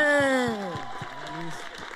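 An audience at E316 claps steadily and rhythmically to welcome the evening's guest on a Tuesday night, heard alongside a loud tonal sound that slides downward in pitch and then levels off.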